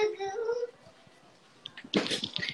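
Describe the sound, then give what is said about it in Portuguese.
A small child cries in the background at home: a brief, high, wavering wail at the start that fades out, followed later by a louder, rougher burst of noise. “Eu digo, fazer live com uma criança pequena em casa é complicado, dá mais chorando, peço desculpas.”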